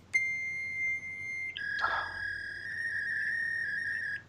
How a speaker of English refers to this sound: so, dial-up modem, folks. Let's see if this rings a bell for anybody.